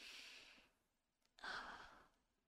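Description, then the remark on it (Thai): A slow, deep breath demonstrating a breathing exercise: a long airy inhale, a brief pause, then a fuller, louder exhale with no talking. “หรืออาจจะใช้วิธีแล้วก็เทคนิคของการฝึกหายใจกับตัวเองว่าแบบ”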